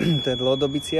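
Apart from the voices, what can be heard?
train whistle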